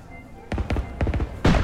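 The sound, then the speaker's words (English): Fireworks going off in the night sky at a carnival: a quick scatter of sharp, crackling bangs in uneven bursts, ending with a louder, fuller explosion that rings briefly. No voices. “At this, the night sky lit up with fireworks.”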